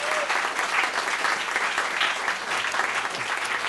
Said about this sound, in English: I want to thank you for being such a great audience. So, just, thank you. Yes, applaud yourself.